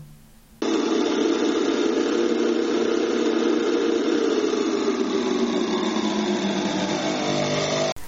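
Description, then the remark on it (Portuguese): A loud, steady mechanical droning noise starts abruptly and holds for several seconds, buzzing and rumbling like a motor, produced by intonarumori, noise instruments created by Russolo to recreate modern sounds such as cars, machines, motors and crowds, then cuts off sharply. “Aí, o que a gente acabou de ouvir foi um pouco dos interromores funcionando.”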